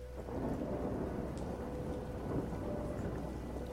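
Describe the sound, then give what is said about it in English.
Light rain falls in a steady, even wash in a cemetery while a breeze rushes through trees inside the cemetery grounds, with a constant low rumble underneath and no voices. “There's a light rain, there's a, ble- a breeze blowing through the trees.”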